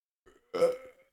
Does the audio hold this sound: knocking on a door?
no